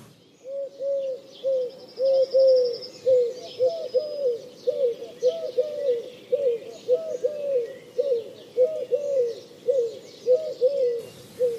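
Pigeons in a city coo continuously in a steady, rolling rhythm, several birds fairly loud, with faint chirps from other small birds in the background and no talking.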